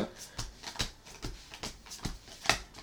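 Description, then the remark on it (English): A deck of cards is shuffled, with a steady series of crisp riffling bursts repeating about twice a second, soft but clear against a quiet background. “I'm just still shuffling.”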